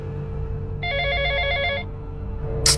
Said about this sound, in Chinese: 可是电话响起的一瞬间，我心跳几乎都停了，每一个细节都巨细靡遗的回到了脑海中。